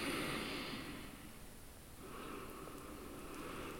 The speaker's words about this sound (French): Et quand c'est suffisant, expire totalement le souffle.